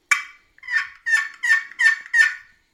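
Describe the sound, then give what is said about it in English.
A run of six raspy turkey yelps, a rollover yelp made by striking a peg across a small wooden scratch box call, evenly spaced and rising into a rolling sequence, loud with no talking. “That's yeah. a rollover yelp.”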